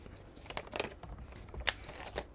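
Soft paper rustling and crinkling as a CD booklet is opened and its pages handled, with several brief crisp bursts, one sharper flick standing out, and no voices.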